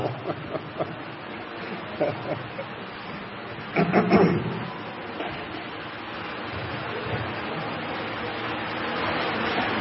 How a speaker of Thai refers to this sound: เอาตั้งใจฟังนะ ตั้งใจฟังแต่เสียงเสียงมันดัง เสียงพัดลมตัวไหนมันดัง ดังมากเลยแหละเสียงพัดลมดัง